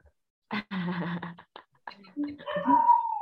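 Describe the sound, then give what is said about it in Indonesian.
A person lets out a drawn-out, wavering dog-like howl that rises into a sustained high tone, following a burst of lively vocal noise. “jangan suka melolong-melolong.”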